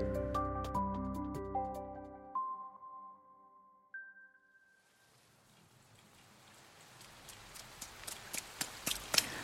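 A short run of melodic electronic tones gives way to heavy rain: a steady hiss with sharp drops tapping on a surface, swelling louder toward the end. No one speaks.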